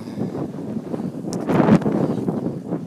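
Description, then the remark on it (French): Strong wind buffets the microphone while cycling to work, with a continuous low rumble swelling into a louder gust partway through, with no voices present. “oh là là là là, le vent va avoir raison de nous.”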